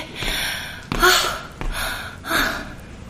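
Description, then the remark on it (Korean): Heavy, breathy panting with several loud inhales and exhales in an uneven rhythm, from a person out of breath after climbing the stairs to the third floor instead of taking the elevator. No talking. “떨려서 그런 건 아니고 숨이 차서였다.”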